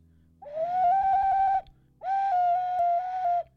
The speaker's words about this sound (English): enough of that. So that was the shit ocarina pause.